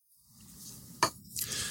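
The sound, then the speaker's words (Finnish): A single sharp clink as dirty dishes are set down on a table in front of a person, followed by a brief scraping rustle, over a low background rumble with no one speaking. “Anna mä laitan ne saastaiset poddausastiat tähän niin pöydälle sun eteen.”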